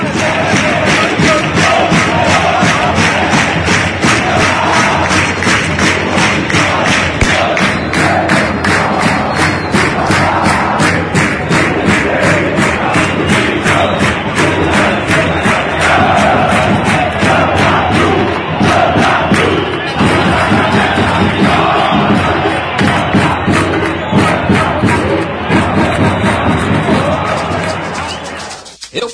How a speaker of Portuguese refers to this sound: É, a grande pressão que sofrem com aquela massa coral de mais de 50 mil pessoas jogando junto com o time.